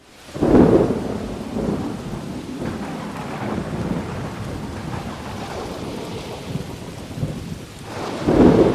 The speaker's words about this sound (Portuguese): Caramba, só porque eu vou pra igreja cai essa chuva torrencial.